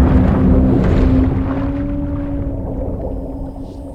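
A video game intro logo sound: a loud, deep rumbling swell with long sustained tones that bend slightly, fading gradually over a few seconds with no talking.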